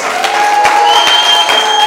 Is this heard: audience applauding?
yes